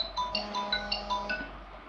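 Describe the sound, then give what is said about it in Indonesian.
A phone ringing tone plays quietly while a call is being placed: a quick run of short electronic beeps hopping between pitches over a faint steady hum, with no one speaking. “Bentar ya, gue telepon.”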